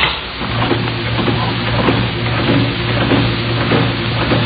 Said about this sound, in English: Pumping the air out of the room. That's clever, isn't it?